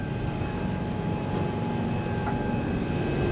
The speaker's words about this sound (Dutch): deze boot kan ontzettend hard. Ik weet nog niet hoeveel pk erin zit, maar het is een hele hoop.